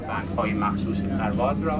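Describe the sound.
A steady, low engine drone fills the background inside an airplane cabin on a flight to Iran, with a person talking over the constant hum.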